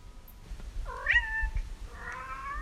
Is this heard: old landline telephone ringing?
no